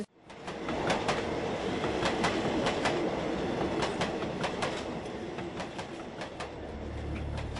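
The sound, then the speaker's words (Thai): A train rolls past on railway tracks at the community beside the railway line at 8 Riew, loud, with steady rhythmic clacking of wheels over rail joints and a continuous rumbling roar throughout. “ที่ชุมชนริมทางรถไฟสาย 8 ริ้ว ที่นี่พบผู้ติดเชื้อโควิด -19 แล้วมากกว่า 10 คน”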